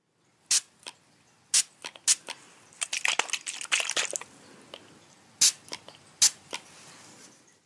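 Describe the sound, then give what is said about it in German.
A hand-pumped spray bottle of skin disinfectant, used before a vaccination, squirts in short, crisp hissing bursts, some single and some in a quick flurry, with no talking. “das war eine Sprühflasche. Desinfektionsmittel, was auf die Haut kommt, bevor man geimpft wird.”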